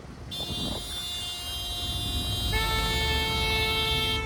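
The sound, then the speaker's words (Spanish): Several car horns blare at once in steady, overlapping tones, with a second horn joining partway through, over a low rumble of idling traffic in a jam on streets of Ciudad Juárez, caused by residents blocking a major avenue. Sustained and fairly loud, with no talking. “Vecinos bloquearon una importante avenida y esto ha provocado tremendo tráfico en distintas calles de Ciudad Juárez.”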